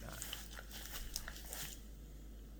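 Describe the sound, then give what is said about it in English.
A dog slurps and laps noisily at hot tea, a quick run of wet, smacking sips lasting under two seconds before fading out, fairly quiet with no talking. “careful, Leo. The tea's hot.”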